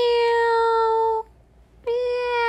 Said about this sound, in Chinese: 喵！喵星二号大叫一声呢